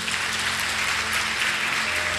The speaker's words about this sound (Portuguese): Mais uma salva de palmas a Deus.